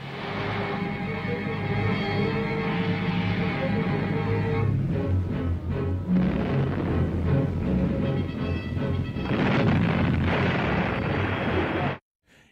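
The heavy naval guns of the battleship HMS Warspite fire in a loud, dense barrage during the naval battle in Narvik Fjord, Battle of Narvik, April 1940, from a British propaganda film, with booming blasts layered over a constant roaring rumble that fills the whole clip before cutting off abruptly.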